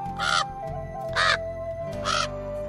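Three harsh, raspy crow caws ring out at an even pace, each short and loud, over a steady low hum underneath.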